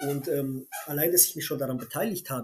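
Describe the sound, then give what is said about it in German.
A squeaky toy gives a short, high-pitched squeak in the background while a dog plays, partly buried beneath a person speaking steadily in the foreground. “Und entschuldige dieses Gequieke hier im Hintergrund, das ist mein Hund, ähm, der tut gerade mit seinem äh, Quetschi spielen und der quiekt halt so ein bisschen.”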